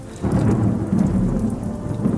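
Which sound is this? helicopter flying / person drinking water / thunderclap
thunderclap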